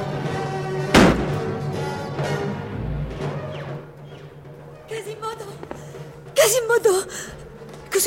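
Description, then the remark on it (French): A loud blast of grapeshot gunfire bursts out during an assault, then another volley follows several seconds later, over a constant din of shouting voices and battle noise. “Ils envoient des flèches, de la mitraille.”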